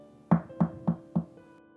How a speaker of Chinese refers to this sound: 突然，外面传来了敲门声。